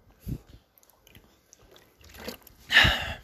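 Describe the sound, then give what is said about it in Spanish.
Someone drinking water: a soft low thump, then scattered faint wet mouth clicks, building to a louder slurping, gulping burst near the end. No one speaks. “Estoy tomando agüita.”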